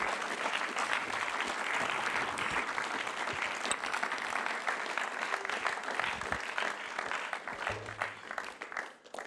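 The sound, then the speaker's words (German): Sustained audience applause at an ICF event for guests coming onto the stage, a dense, steady wash of many hands clapping for about nine seconds, fading slightly at the very end, with no voices rising above it. “jemand auf die Bühne kommt hier im ICF Tour für alle unsere Gäste heute, geben wir ihnen einen warmen Applaus.”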